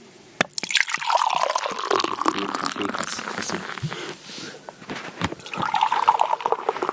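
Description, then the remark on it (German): A rather dark beer is poured into a glass in a steady, gurgling stream that rises in pitch as it fills, briefly easing before a second strong pour. Fairly loud, with no talking. “So, äh, jetzt äh, einschenken.”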